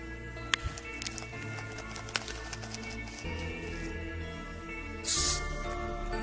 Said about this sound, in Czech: začíná zvukem tekutiny promíchávané v ampulce.